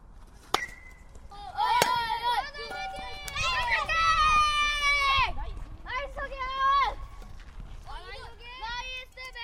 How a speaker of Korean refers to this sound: 네, 이거 현장음을 들어보니까 네. 야구 훈련장 같은데 네.